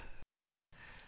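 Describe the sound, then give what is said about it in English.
A sneeze: two loud, breathy, hissing bursts split by a brief silence, with no talking. The first burst is short and the second is a longer, harsher blast. “Bless you”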